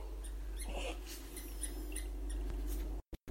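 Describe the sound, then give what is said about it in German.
A whole army of rats in a sewer squeaking, with many high, shrill chirps overlapping in a busy scurrying chorus over a low rumbling background, cutting out abruptly near the end. “eine ganze Rattenarmee auf sie zu. Richtig so eine, so eine, so eine Welle von Ratten.”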